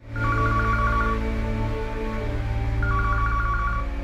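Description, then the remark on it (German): A telephone rings twice, each ring a warbling electronic trill lasting about a second with a pause between, moderately loud over a steady low droning background. “wenn das Telefon unerwartet klingelt, ist ihrem Mann etwas Schreckliches passiert.”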